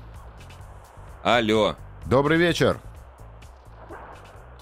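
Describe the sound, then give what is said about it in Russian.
A steady low rumble and hiss of road noise from a car driving on the empty new Leningradka highway runs throughout, with a man's voice briefly speaking over it, as if calling from inside the vehicle. “Это шумит дорога. Это вы едете.”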